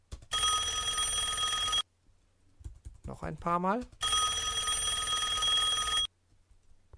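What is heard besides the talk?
telephone bell ringing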